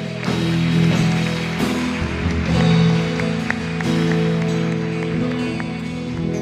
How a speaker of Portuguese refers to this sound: Aplauda ele essa noite.